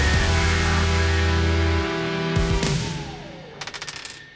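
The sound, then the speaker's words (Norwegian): A die is thrown across a table, hitting with a couple of sharp clacks, then rattling through a quick burst of small bounces as it settles showing one, while background music fades underneath. “Da får du den her berømte terningen over bordet her. Og så kaster du den.”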